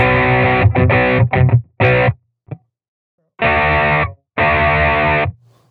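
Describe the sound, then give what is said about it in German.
Electric guitar with a light crunchy distortion plays short chord stabs, then two longer sustained chords after a pause, loud with no one talking. “Der hat erstaunlich wenig Verzerrung.”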